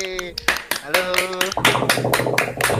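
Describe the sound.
Hands clap in a steady, sharp burst of applause throughout, mixed with voices and a tonal, musical-sounding background.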